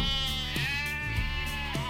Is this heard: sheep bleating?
yes